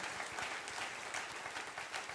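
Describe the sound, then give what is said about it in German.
An audience claps for God after a prayer, a dense, continuous wash of many hands with no pauses, loud and even throughout the short stretch, with no voices standing out. “Hey, lass uns Gott nochmal einen riesen Applaus geben.”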